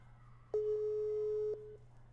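A steady telephone ringback tone sounds for about a second, then stops, heard clearly over a low background hum with no voices, like a call ringing unanswered.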